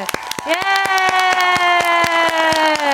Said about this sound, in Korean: 자 이게 이거는 혼, 본인이 트시기좀 민망하시겠지만 그래도 박수 소리 한번 올한 해도 뭉지 서포트 하나로 고생했상 우리 스태프분 예.